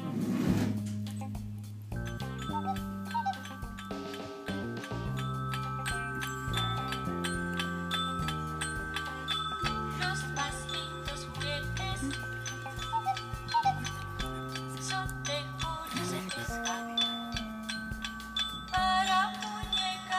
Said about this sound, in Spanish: ya que una de ellas es la de juguete Julio Cepeda Juguetería. En esta pues era una tienda en el cual podías este, encontrar diversos juguetes. y pues vamos a escucharlo para ver cómo cuál es el jingle y pues de la que lo diferencia como marca.